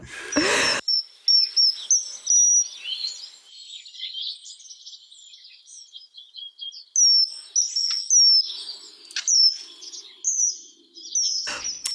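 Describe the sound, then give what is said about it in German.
A common kingfisher gives a series of sharp, high-pitched piping calls in irregular bursts, clear, with a few brief clicks. No one speaks. “Lebensraum des Eisvogels ist Europa, Asien, Nordafrika, Indonesien.”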